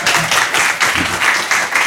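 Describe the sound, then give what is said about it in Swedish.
A burst of audience applause, dense overlapping claps forming a steady, fairly loud crackling wash with slight rhythmic swells, no voices heard. “Och sen är det dags att ge dig en stor varm applåd”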